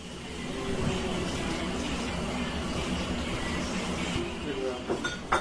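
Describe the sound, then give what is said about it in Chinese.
Friends cooking a home dinner party: a steady, loud whooshing rumble runs throughout under overlapping chatter, with a few sharp clinks and clatters near the end. “刚刚大家听到这一段特别热闹的在做饭的声音，就是我我们的朋友们在做家宴的这个过程。”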